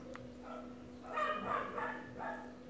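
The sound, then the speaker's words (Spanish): A dog barks several times in a quick, uneven series, sounding somewhat muffled, over a steady low electrical hum. “Pasa que tuve que entrar a mi perro para que no esté ladrando tanto, porque empieza a ladrar y no va a parar hasta que lo hagas entrar”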